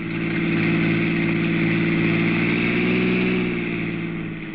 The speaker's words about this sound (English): Your car roars past Mary's car within a few miles, and you leave her behind.